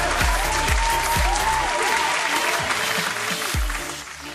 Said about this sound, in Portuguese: Poxa, palmas. Puxa as palmas aí, editor. Cheguei, palmas.